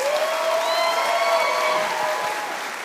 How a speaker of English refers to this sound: Come on, give Jesus a better hand clap, everybody on, if you really love him, give him your best.